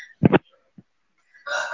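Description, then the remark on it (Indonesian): A chicken clucks: a short, loud double burst, a brief pause, then a sustained nasal squawk rising at the end. No one speaks. “Teman-teman sebelumnya maaf ya karena suara ayam.”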